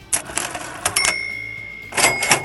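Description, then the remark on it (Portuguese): A cash register sound effect rings out loud: rattling mechanical clunks, a bright bell ding that hangs in the air, then another burst of jangling drawer clatter. “Sobe, sobe o som do dinheiro aí.”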